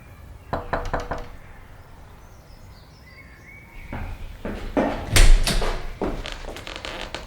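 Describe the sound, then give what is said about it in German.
A quick series of firm knocks on the wooden front door of a small house in a quiet residential neighbourhood of Pacific Palisades, followed after a pause by a louder, heavier burst of knocking, with faint outdoor ambience and birdsong behind. “Bob trat durch ein modriges, hölzernes Gartentor und klopfte an die Tür.”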